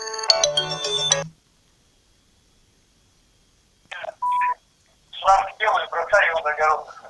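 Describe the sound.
A melodic phone ringtone with a bass line, for an incoming call from the duty dispatch service of the city of Biysk, plays loudly for about a second and cuts off, followed by silence, a brief electronic beep, and then a person speaking.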